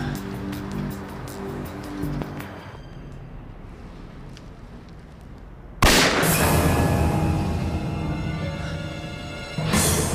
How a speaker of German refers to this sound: Weißt du, von wo der Schuss gekommen ist? Nein, keine Ahnung. Ich glaube, irgendwo von oben.